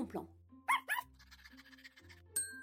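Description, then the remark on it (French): Idéfix, Obélix's small dog from Astérix, gives two quick, high-pitched yapping barks in a row, over a low steady background hum, followed by a brief bright tone. “Le chien d'Obélix s'appelle bien Idéfix.”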